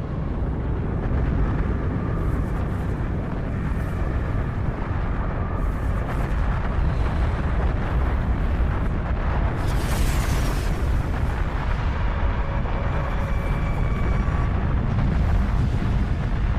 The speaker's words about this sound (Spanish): El asteroide golpea con una fuerza tan inmensa que destruye todo lo que toca. Incluso el propio asteroide se desintegra al momento. El impacto desencadena la energía equivalente a millones de bombas nucleares.